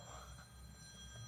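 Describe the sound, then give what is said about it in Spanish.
An office phone rings faintly and muffled inside a handbag, a steady electronic tone held over a low background rumble, with no one speaking. “ese es el teléfono de mi oficina, está en mi cartera.”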